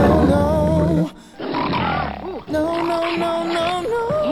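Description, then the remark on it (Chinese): A young mountain lion, under a year old, growls and snarls in rough, throaty bursts as it chases a jogger in Colorado, USA, with a brief pause before the harsh, rising-and-falling growling resumes loudly and continues without any talking. “美国科罗拉多州一男子慢跑时，忽然听到身后有响声，定睛一看，哎呦我擦嘞，美洲狮！”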